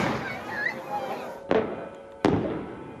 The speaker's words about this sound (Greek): Στην Σύρο τα βεγγαλικά χρωμάτισαν τον ουρανό.